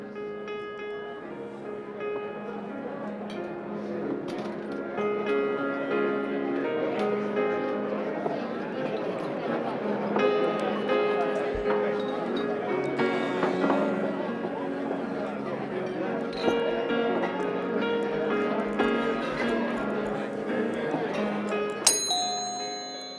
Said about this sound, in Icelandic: við setjum sér þetta á fínum veitingastað þar er píjánuleikari sem að spila fyrir okkur Íslensk lag og við ætlum bara að reyna átt okkur á því hvaða lag hann er að spila